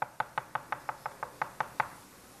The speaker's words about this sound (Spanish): Dice, yo estoy tocando la puerta.